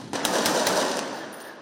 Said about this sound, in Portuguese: Um dos disparos passa bem próximo dos agentes. A polícia diz que o tiroteio aconteceu durante a troca de turno dos policiais da unidade de polícia pacificadora da comunidade e que as equipes teriam sido atacadas por traficantes.